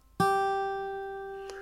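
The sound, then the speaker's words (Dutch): A single sustained musical note a perfect fifth above a starting tone, demonstrating a scale built by stacking fifths, with a bright, harmonic-rich timbre, struck once and ringing out steadily while slowly fading, with no voices present. “Als je daar een kwint van neemt, dan hoor je”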